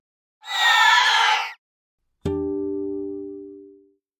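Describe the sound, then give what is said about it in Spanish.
A harsh, piercing shriek lasts about a second, loud and close, then after a brief silence a sharp struck tone rings out and slowly fades away. No one speaks. “Muchas personas dicen que a veces en Sonsonate se puede escuchar un terrible chillido.”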